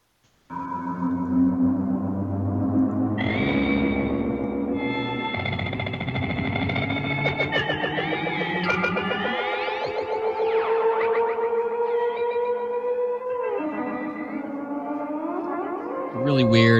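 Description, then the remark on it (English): Eerie experimental electronic music, the soundtrack of a 1956 sci-fi film, with warbling, gliding tones, echoing swells and siren-like sweeps layered over a steady drone, loud and continuous throughout, no voices. “it was actually the soundtrack to the movie Forbidden Planet, which came out in 1956”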